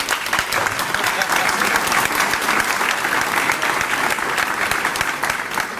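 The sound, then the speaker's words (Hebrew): An audience at a Torah lesson claps steadily for several seconds, a dense, even crackle of many hands that holds a constant, fairly loud level without building or fading. “באמת שאני לא עושה את זה בשביל מחיאות כפיים.”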